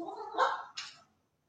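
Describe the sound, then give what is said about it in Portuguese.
A cat running past lets out a short, strained yowl, rising in two quick bursts before fading out in about a second, with no talking over it. “Acabou de passar um gato correndo.”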